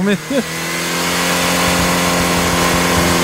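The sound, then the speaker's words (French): A turbine-powered car, its engine an aircraft turbine developing 200 horsepower at 35,000 rpm, revs up into a loud, sustained, steady whine with a broad rushing roar, holding for several seconds after a brief voice-like sound at the start. “Et d'ailleurs, cette voiture-là, son moteur, c'était une turbine d'avion qui développait 200 chevaux à 35 000 tours”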